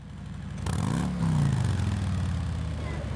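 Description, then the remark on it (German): A V-twin (V2) motorcycle engine starts up and settles into a loud, lumpy idle with an uneven throbbing beat, a brief rev rising and falling before it steadies. “Der besondere Sound kommt durch das Motorenprinzip. Wir haben einen V2-Motor und haben beide Kolben gleichlaufend oder nur um den Zylindergrad versetzt.”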